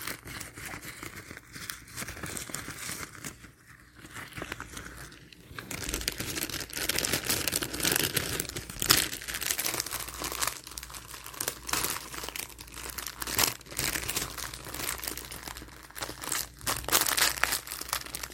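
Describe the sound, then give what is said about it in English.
Continuous crinkling and rustling of plastic party supply packaging with small confetti circles inside, loud and irregular, with sharp crackly bursts as the wrapper is handled and squeezed; no one speaks. “Um, but yeah, so you've got these little confetti circles on the inside of this.”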